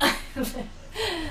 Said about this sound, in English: For you who are not watching, video, a dog not me. me. that was a dog.